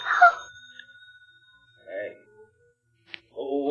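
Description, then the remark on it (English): A pay phone in a booth rings once at night with a bright, sustained tone that slowly decays, followed by brief snatches of voices. “Well, look, you can just let it go and it'll stop ringing. Who calls a pay booth this time of night?”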